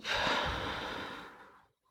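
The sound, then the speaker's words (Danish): A single slow, audible, breathy exhale during a guided breathing exercise, starting strong and gradually fading out over about a second and a half, with no talking. “Og pust ud og mærk din krop.”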